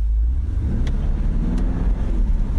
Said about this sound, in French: Vous espèce de, de feulement du V8 4 litres, 600 chevaux, 600 chevaux, vous m'avez bien entendu, euh, dans le capot moteur euh, d'un 4x4, puisque le, Q8 est le plus gros 4x4 de la gamme Audi.